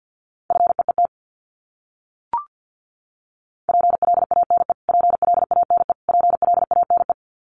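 Rapid Morse code at 50 words per minute, repeating common English words: a steady mid-pitched beep keyed into fast dots and dashes, sent in several bursts with short gaps and one brief blip between them.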